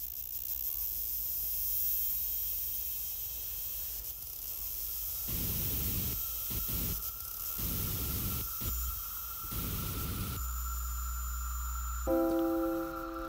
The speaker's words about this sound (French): pas d'animaux, mais des samples d'Electribe. ah oui, tu ah, reconnais le, bruit aigu au fond. Ah ouais, ok. C'est un sample de l'Electribe.